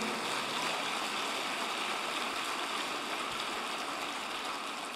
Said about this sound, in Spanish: Dale el mejor aplauso que le hayas dado en el día de hoy.